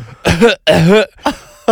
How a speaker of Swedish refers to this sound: när jag hade fått ut en liten prilla ur dosan, då låtsades jag att jag började hosta lite.